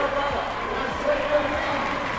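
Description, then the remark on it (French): A football stadium crowd at a Burnley versus Chelsea match applauding together in a minute of applause for Ukraine, requested by the stadium announcer; a dense, steady wash of clapping that holds at an even level throughout, with a murmur of voices blended into the noise. “Ok, donc là le speaker vient de demander une minute d'applaudissement pour soutenir l'Ukraine. Et autour de nous, euh, tout le monde suit le mouvement.”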